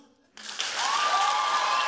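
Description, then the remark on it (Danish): After a brief quiet moment, an audience bursts into clapping that swells quickly and holds as a dense, steady wash of applause, with a thin whistle-like tone running through it. “Og hvis I vil høre det, som øh, coronaskeptikere kalder alternative fakta, så skal I, øh, så skal I klappe nu.”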